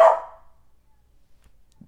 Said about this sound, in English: did you guys hear my dog barking? I'm so sorry.